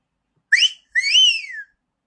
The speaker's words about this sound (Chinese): 说着，哈杰奋力的吹起口哨。